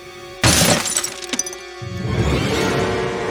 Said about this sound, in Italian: Il vetro del lato sinistro della loro 132 va in frantumi a mille pezzi.